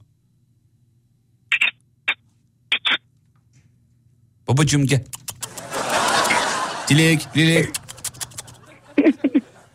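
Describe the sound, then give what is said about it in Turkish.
Three short, high squeaky chirps made by a person kissing the middle of their palm to imitate a budgerigar, spaced about a second apart, followed by people talking and noisy laughter. “Şimdi avucunuzun içini öperek kuş sesi doğru mu anladık?”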